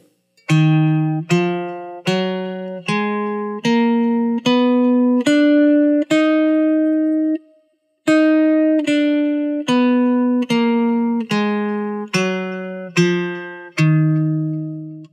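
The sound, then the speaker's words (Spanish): A D-sharp harmonic minor scale in steady, evenly spaced tones, eight notes climbing and then eight descending after a short pause, with a bright, buzzy, electronic timbre and no voices. “La escala de re sostenido en manera armónica es así.”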